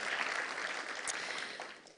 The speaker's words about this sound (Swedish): Så ni ska vara stolt och glada över ert pastorsteam. Ni gör ett fantastiskt jobb. Ja, eller hur? En applåd. Jätte, jättebra.